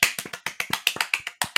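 A quick run of sharp hand claps, about a dozen crisp slaps in under two seconds, steady but slightly uneven, with no voices over them.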